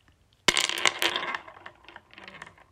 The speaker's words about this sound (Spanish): Quiero despedirme haciendo una tirada de runas a ver cuál es la que en este momento va a salir y bueno pues preguntando cómo será esta semana para todos y cada uno de los que están escuchando este podcast.